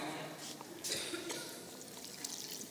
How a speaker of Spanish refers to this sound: Vamos a echarle el agua.